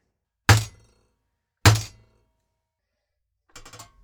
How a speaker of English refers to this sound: Rolling pin. Tenderizer.